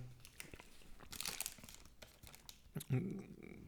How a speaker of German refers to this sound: Ich esse ich ess gerade was und ich habe gehört, das ist unhöflich, deswegen lasse ich dich kurz ein bisschen reden.